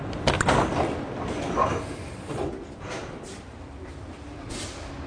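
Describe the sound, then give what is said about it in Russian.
The door of an old-model Munich subway train, which does not open automatically, is yanked open by its handle: a sharp metallic clunk and rattle, then a brief sliding rumble, followed by steady low station or carriage noise. “Двери не открываются автоматически. Чтобы открыть дверь, нужно дернуть за ручку.”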